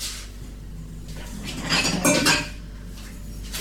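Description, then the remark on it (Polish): A mug is picked up, to be set on a shelf under a coffee machine's spout, with a short cluster of light ceramic knocks and scrapes, louder for about half a second in the middle, over a steady low hum. No one speaks. “Wezmę teraz kubek.”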